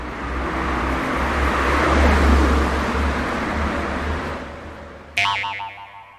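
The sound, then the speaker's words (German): Loud, steady roar of heavy traffic on a six-lane motorway, a dense wash of tyre and engine noise that swells and eases, then cuts abruptly to a different, tonal sound near the end. “Da habt ihr ja, da habt ihr die Eisenbahntrasse, da habt ihr die Autobahn, sechs Spuren.”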